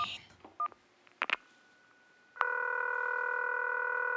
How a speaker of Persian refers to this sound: ویکتور این تلفن کجا بود؟ آها خب دکمه تکرارش کدوم بود؟ اینم از این